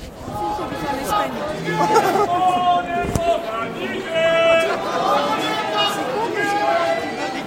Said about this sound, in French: Le cortège remonte de la gare de La Rochelle vers le vieux port. Le soleil brille fort. Cette marche est loin d'être désagréable. Il y a beaucoup de monde